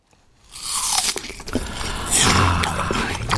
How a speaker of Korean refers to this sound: 아, 침, 침 나오는 소리네요. 사과 아삭아삭 소리입니다.